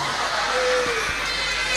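An audience applauds the mothers in attendance, a dense wash of clapping that stays fairly loud for the whole stretch, with a faint murmur of crowd voices mixed in.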